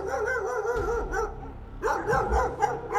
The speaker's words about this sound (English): The second thing is that you hear the barking of dogs in the distance.